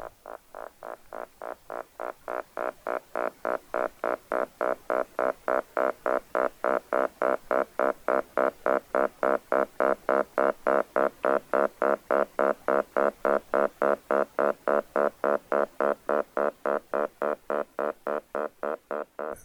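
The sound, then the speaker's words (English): A stink bug's alarm call: a steady, deep, resonant buzzing tone pulsing rapidly and evenly, about three beats a second, sustained for the whole stretch with no voices. “another recording I'll play for you, which I really love, is this stink bug, which has this deep resonant tone. Um, and it's probably an alarm call.”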